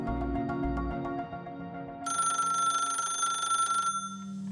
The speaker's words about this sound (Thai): เช้ามืดของวันที่ 2 กรกฎาคม พุทธศักราช 2540 โทรศัพท์ที่บ้านของนายแบงค์ระดับสูงดังขึ้นพร้อมกัน ปลายสายคือเจ้าหน้าที่จากทางธนาคารแห่งประเทศไทย โทรมาเรียกให้ทุกคนไปรวมตัวกันที่แบงค์ชาติตอนเช้าตรู่พื่อรอฟังข่าวสำคัญ